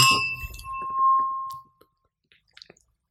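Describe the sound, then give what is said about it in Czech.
Glasses clink together in a toast, leaving a bright ringing tone that fades over about a second and a half, followed by a few faint, soft taps. “Tak jo, a na to se napijeme ještě.”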